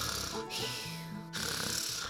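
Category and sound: sound effect, snoring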